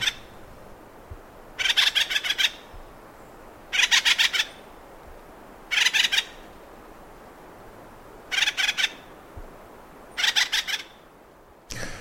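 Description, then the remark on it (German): Calls of a North American sapsucker woodpecker: five short, rapid rattling bursts, each under a second, repeating about every two seconds over a quiet background with no talking. “Das ist der nordamerikanische Ahornspecht.”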